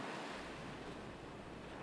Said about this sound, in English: The wind was bitter cold. I dug a pit in the sand with my heel and started to empty the sack into it, but the wind caught the birds and whirled them along the shore.